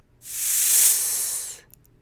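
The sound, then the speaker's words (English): A single sustained hiss made by a human voice imitating a snake to demonstrate the s sound, with the tongue against the bottom teeth, blowing gently through the teeth. It is steady and fairly loud for over a second before cutting off, with no speech around it. “Can you imagine the sound that a snake makes when it hisses?”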